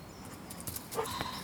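A dog gives a short, thin whimper along with a few quick sniffs as it sniffs a person's hand, soft and brief against a quiet outdoor background at night, on a dirt path at the edge of trees.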